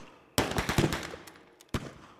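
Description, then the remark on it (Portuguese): A rapid burst of automatic gunfire cracks out in quick succession, fades into echo, then a second sharp burst follows. Loud, with no talking. “De repente, começamos a ouvir tiros, tireteiros mesmo.”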